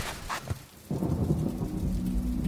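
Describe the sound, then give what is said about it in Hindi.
Steady rain pours down while a deep roll of thunder rumbles in after a brief lull, filling the low end with a heavy, continuous storm wash. “साल 2000 अप्रैल बारिश में कुछ बच्चे खेल रहे थे”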